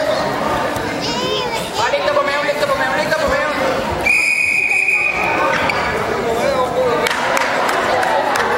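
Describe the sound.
A single shrill whistle blast rings out for over a second, cutting through a busy space full of chattering voices and bouncing basketballs.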